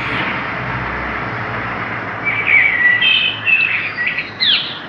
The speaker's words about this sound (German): Vögel zwitschern, im Hintergrund rauscht der Verkehr, wirklich die perfekte Verbindung von Natur und menschlicher Kultur.